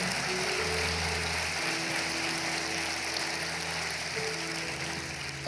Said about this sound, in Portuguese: aplaude o nome dEle.